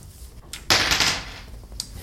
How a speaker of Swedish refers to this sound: kastar tärningen.